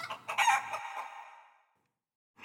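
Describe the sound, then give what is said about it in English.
A hen called Hattie clucks loudly in one drawn-out, squawking burst that trails off into silence after about a second and a half. No one speaks. “Parva, his cheery wife, five children, and his hen called Hattie, whirled and whooshed and wheezed.”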